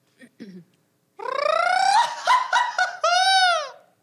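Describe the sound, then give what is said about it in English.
A mariachi grito, a traditional Mexican yell, from a mariachi band member: after a couple of soft breathy sounds, one loud voice lets out a long, high-pitched yell that warbles and breaks, then ends in a rising-and-falling wail. “I feel like it's very important that at least all of us can like have a grito because like that just shows how much we how much passion we have to this and how much we can actually do instead of just playing our instrument.”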